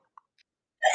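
A single abrupt, loud sneeze bursts out at the very end, after near silence broken only by a tiny soft catch of breath.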